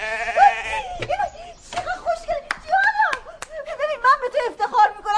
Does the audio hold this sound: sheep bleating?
yes